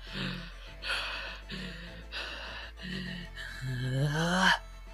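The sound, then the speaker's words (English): A voice imitates heavy panting, five ragged breaths in a steady rhythm, the last one stretched into a rising, strained groan. Fairly loud, with no words spoken. “He's on one knee as a Duskull, just basically like panting as hard as he can”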